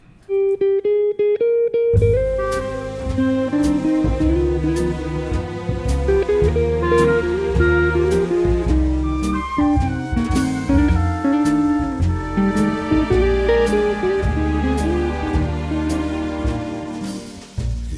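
A jazz guitar opens a standard alone for about two seconds, then a full band comes in for a steady, loud, harmonically rich instrumental intro with a bass line and no singing.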